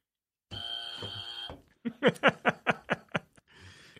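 A harsh, steady quiz buzzer blares for about a second, then a burst of rhythmic laughter follows, ending in a soft hiss.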